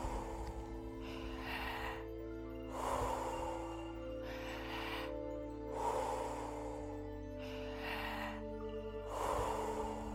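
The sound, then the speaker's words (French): Deep, forceful breaths drawn in fully and pushed out fully in a steady repeating rhythm during a guided breathing exercise, each one loud, over a soft sustained musical drone. “Inspirez à fond. Expirez à fond.”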